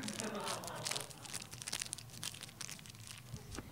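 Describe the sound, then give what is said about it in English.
Crinkling and tearing of a thin paper wrapper as a paper-wrapped tampon is pulled out of its cardboard applicator, a busy run of sharp rustles and rips lasting a few seconds, fairly quiet but continuous. “So I'm just gonna put pull the paper wrapped tampon out of the cardboard.”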